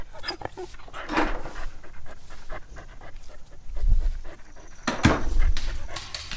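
A dog named Bexisi pants steadily, with soft whimpers breaking through now and then, the rapid breathy rhythm continuing throughout with no one speaking.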